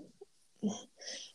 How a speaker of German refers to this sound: ähm, es ist ja, äh, das ist mein Hund. Die sitzen neben mir und jetzt, ja.